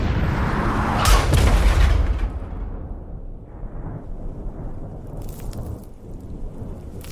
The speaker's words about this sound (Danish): Bilen rammer en vejsidebombe og ruller rundt og rundt på grusvejen, som de kører på. De fire nyuddannede og uerfarne soldater bliver kastet rundt i bilen. Stødet virvles op, og det høje brag efterfølges hurtigt af komplet stillhed.